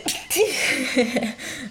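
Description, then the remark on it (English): A single forceful sneeze bursts out after a quick sharp inhale, followed by a brief breathy, laugh-like vocal trailing off. “i'm gonna sneeze”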